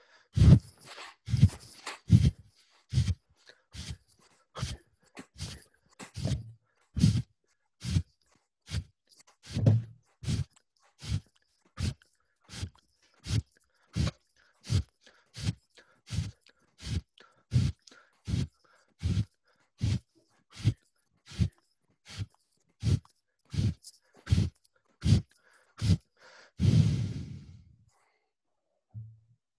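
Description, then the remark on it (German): Rapid, forceful breaths of a breathing exercise, arms raised and pulled down, repeat in a steady rhythm, about thirty in a row, loud, ending in one longer, deeper exhale. No one speaks. “Also, lass uns dreimal, 30 Mal atmen und äh, am besten mitmachen.”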